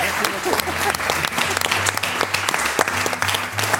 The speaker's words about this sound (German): Großen Applaus